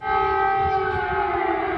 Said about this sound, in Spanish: Las sirenas y el estruendo de los proyectiles interrumpen el silencio ominoso de un país en guerra.